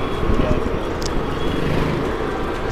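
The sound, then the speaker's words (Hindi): A car being driven slowly along the road, heard as a steady low rumble and engine drone from inside the vehicle, continuous and fairly loud throughout, with faint indistinct voices in the background. “सुन लो ठीक है क्या करूँ मैं अभी थोड़ा धीरे चलाता हूँ गाड़ी”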